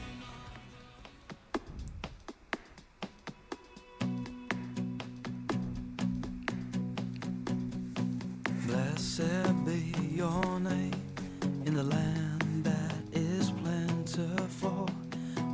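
The calmer original studio version of a worship song, released in 2002, plays: soft sustained chords over a light, steady beat, gradually building as fuller instruments and a singing voice join partway through.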